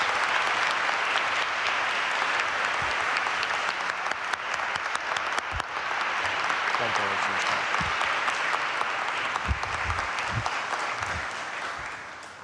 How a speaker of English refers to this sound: before we end, can we just give the first communicants and their families a, a, a warm welcome and round of applause?